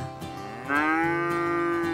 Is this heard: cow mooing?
yes